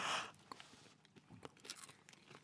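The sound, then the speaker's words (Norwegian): Crisp crunching of a dry snack being chewed, with a loud burst at the start followed by irregular brittle crackles and soft mouth sounds, no talking. “Du tar det i eh, munnen og tygger. Du tar og tygger. Skal ja. knase det.”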